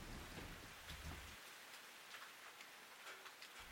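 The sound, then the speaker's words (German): Steady rain patters down on a surface, a dense, continuous hiss of drops with a low rumble at the start and no voices. The rain is falling on a campus, outside a huge black tent, as people hurry through it. “Sie eilen durch den Regen auf das Zelt zu.”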